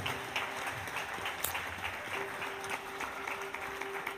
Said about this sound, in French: Est-ce qu'on peut encore applaudir plus fort cette présence de Dieu Alléluia.